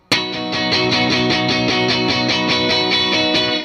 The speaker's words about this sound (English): And uh, so just like it does the thing that the Danelectro does, you know, but then you you add a couple of things to it and it's like it actually sounds huge this guitar, you know. It's a versatile tool.